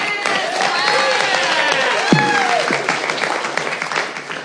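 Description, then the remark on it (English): A steady burst of audience applause, dense clapping that holds at an even level throughout, with a few rising and falling cheers and whoops riding over it. “clap. I know, there's only three people.”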